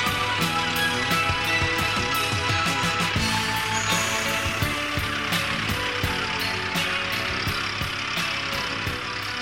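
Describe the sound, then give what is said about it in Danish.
A combine harvester runs, a loud, steady mechanical drone layered with regular ratcheting clicks and rattling gears throughout, with no one talking. “Det der til sidst, var det ikke en, øh, var det ikke en majtasker, man kunne høre?”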